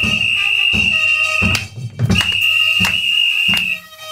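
A murga troupe entering a studio plays live percussion with a trumpet: steady, evenly spaced bass drum and cymbal hits, about one every three-quarters of a second, under a long, shrill, sustained whistle-like tone, loud, with no talking.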